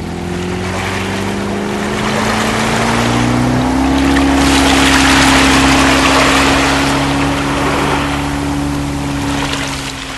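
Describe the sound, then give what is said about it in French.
A motorboat engine drones steadily, its pitch rising slightly as it speeds up to outrun pursuers, with broad rushing water and wind noise around it. No one speaks. “Avec le moteur, nous allons les distancer.”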